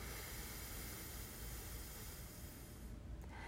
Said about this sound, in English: And then you're going to switch fingers. So you're going to cover up your right nostril with your index finger, releasing your thumb, and then exhale.